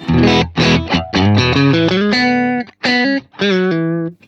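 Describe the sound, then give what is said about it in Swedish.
Distorted electric guitar with the Telestrand adjusted and the volume at twelve o'clock on both, plays a short phrase of sustained notes and bends, loud and saturated with a gritty amp tone, each note ringing with dense overtones before brief gaps. “Jo, vi har, har vridit på Telestrand med... Nu är volymen klockan 12, eller?”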